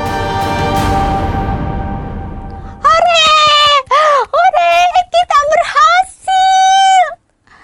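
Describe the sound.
A loud rushing, splashing wash of sea water spilling back into the sea fades away, then a group of high voices screams in a string of loud wailing bursts as they fall back into the sea with the water, their pitch sliding downward.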